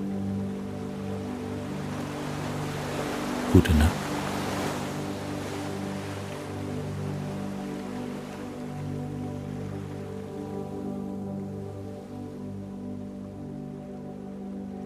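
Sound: rhythmic ocean waves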